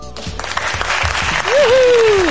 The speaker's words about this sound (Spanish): De todas maneras, de ahora que estamos escuchando aplausos,